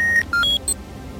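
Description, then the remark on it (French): A quick series of four electronic beeps at stepped pitches, a car system chiming as the doors lock and the autopilot is set, clear over a low engine rumble, with no talking. “Il verrouille les portes et paramètre le pilote automatique.”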